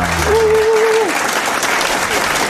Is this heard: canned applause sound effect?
yes